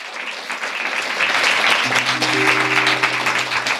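Dense, steady audience applause with many hands clapping at once, loud throughout, while a low sustained tone comes in about halfway and holds underneath the clapping.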